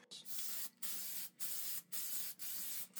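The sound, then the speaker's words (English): Five quick hissing bursts from an aerosol can of spray lubricant sprayed onto rows of brass cartridge cases, aimed at the necks and shoulders, each about half a second long with brief gaps between them, loud with no voices. “So with a spray lubricant, you don't want every hole.”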